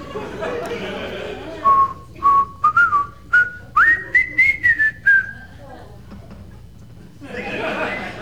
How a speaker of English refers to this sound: walking out the door with a pair of espadrilles on, whistling the Old Spice song.